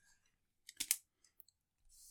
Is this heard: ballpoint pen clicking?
yes